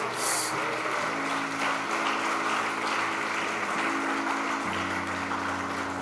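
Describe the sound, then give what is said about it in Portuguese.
A church audience at a Christmas service claps steadily for several seconds, a dense, even wash of applause that stays loud throughout, with low sustained musical tones humming underneath. “Aplauda o nosso Deus, por favor, irmãos.”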